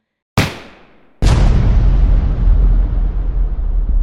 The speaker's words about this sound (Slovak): a výbuch zmietol jaskyňu aj so všetkými zbojníkmi.